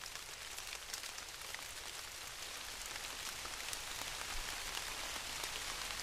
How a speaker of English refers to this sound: be able to get the sound of these raindrops on this tundra moss